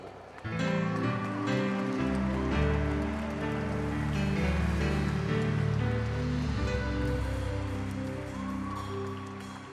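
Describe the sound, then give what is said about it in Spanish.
A large crowd claps loudly and steadily for several seconds, a dense patter of applause over sustained keyboard or organ chords, fading slightly toward the end. “Dale un fuerte aplauso.”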